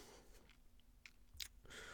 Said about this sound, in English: Don't mind that crunching. That's just me taking a sip of water.